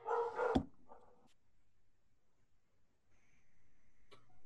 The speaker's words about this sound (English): are, are, those the dogs? The dogs the just love the love all this e- Egyptology talk. They just get so excited.